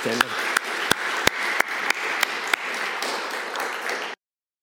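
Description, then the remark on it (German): An audience applauds steadily for about four seconds, dense overlapping claps with a few sharper individual claps standing out, then it stops abruptly. “Ich finde, das ist ein Applaus wert.”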